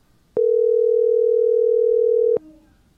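A single telephone ringing tone while a call is placed: one steady, clear electronic beep lasting about two seconds, loud, with faint clicks at its start and end and no voices.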